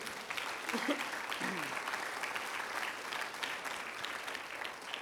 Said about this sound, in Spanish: Apláudele fuerte al Señor. Amén.